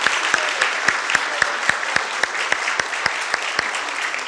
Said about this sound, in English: think we can give the children a round of applause. I know you feel they're great singing.